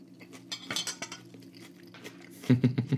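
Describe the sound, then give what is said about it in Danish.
Cutlery clinks and scrapes against a plate as someone eats breakfast at a radio microphone. A quick, uneven series of bright metallic ticks, with soft chewing sounds, growing louder and busier toward the end. “Men det gode er jo, så længe jeg spiser, så snakker jeg ikke.”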